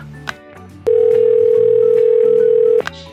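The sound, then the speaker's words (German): A loud, steady telephone dial tone after a misdialed call hums unbroken for about two seconds, sitting over quieter background music that continues before and after it. “Oh, Entschuldigung, da habe ich mich anscheinend verwählt. Tschüss.”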